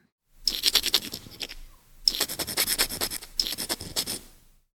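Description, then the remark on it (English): A dental curette, a hook-like dentist's tool used to clean plaque, scraping in three rasping strokes, each about a second long, with short pauses between. The scratches are gritty and high-pitched, fairly loud, and there is no talking. “A dental curette.”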